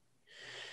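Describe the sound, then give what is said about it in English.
A single breathy exhale pushed out through the mouth, demonstrating breathing out during a focused breathing exercise, starting after a short quiet moment and swelling into a steady, airy rush that lasts under a second. No one speaks. “The breath's going to go out your, out your mouth.”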